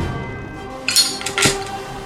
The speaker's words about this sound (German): Die kleine eiserne Schaufel klappert, während mit ihr ein brennendes Stückchen Holzwolle in die Feuerbüchse des stehenden Dampfkessels schießt